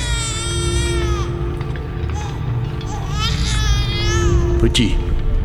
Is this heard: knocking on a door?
no